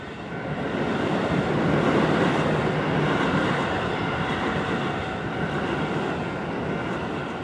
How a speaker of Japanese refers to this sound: 東京ローカル世田谷線の旅山下駅からはあと2駅で終着の下高井戸駅三軒茶屋からスタートした世田谷線の旅もいよいよゴールとなります